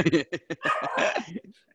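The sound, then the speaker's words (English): A dog barks in a quick burst of sharp barks, then breaks into a longer run of whiny, excited yelps that trail off. “And your dog believes that as well. Yeah, yes, my dog is off on one.”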